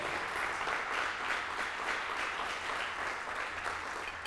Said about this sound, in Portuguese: Você podia dar um aplauso para esquentar tua, teu corpo aí, ó.